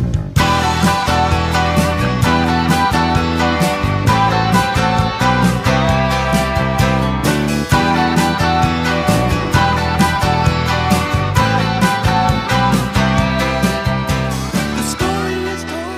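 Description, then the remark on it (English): A soft rock song released in 1978 plays steadily and loudly throughout, with a full band of drums, bass, keyboards and melodic instruments in a smooth, mid-tempo groove, with no talking over it. “So …, let's hear a little and tell me if you think it floats your boat.”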